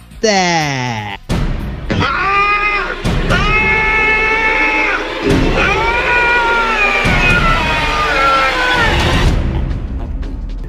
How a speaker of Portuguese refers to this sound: a vinheta do Notícia para Nos Irritar é a mais demoníaca que eu já vi na minha vida